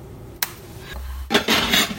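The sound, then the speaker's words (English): A Vitamix blender pulses frozen breadcrumbs while a pusher presses them down: a quick clatter, a brief low motor hum, then a loud, harsh grinding roar that churns rough and steady to the end, with no talking. “I'm gonna put it in the top of the Vitamix and try to push this down a little while we pulse it to give uh, the Vitamix a chance to work on breadcrumbs that are frozen.”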